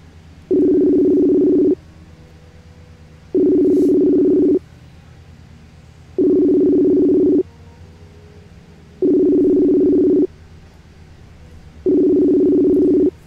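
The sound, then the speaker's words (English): An outgoing phone call ringing on the line: five steady electronic ring tones, each lasting just over a second with regular pauses between them, clear and fairly loud with no talking. “answer your phone.”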